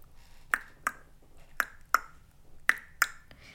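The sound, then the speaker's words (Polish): A voice imitates a horse with sharp tongue clicks, six crisp clip-clop pops in three even pairs like trotting hooves, moderately loud, with no talking. “No, często też um, ona emitowała dźwięki um, zwierząt, na przykład też pokazywała, jak to można zrobić, że na przykład koń brzmi tak”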